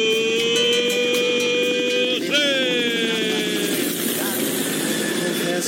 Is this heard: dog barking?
no